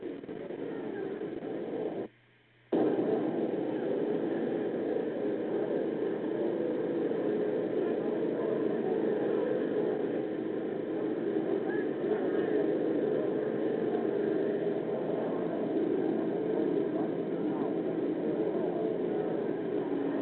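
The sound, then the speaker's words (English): A loud, steady mechanical roar of an army helicopter's engine and rotors as it lands at an Air Force base, continuous throughout apart from one brief cut near the start, with no voices. “An army helicopter has just landed, making a great deal of noise”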